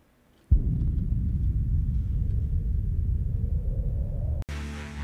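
Opening of a progressive rock song: a loud, steady, low roaring rumble like storm wind fills about four seconds, then cuts abruptly into sustained, tonal music. No voices.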